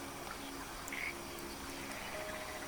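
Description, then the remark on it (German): Frogs croak faintly in the distance from a frog pond, a steady low chorus blending into an outdoor ambience with soft bird sounds. No one speaks. “Von weitem hörst du jetzt das Quaken von Fröschen.”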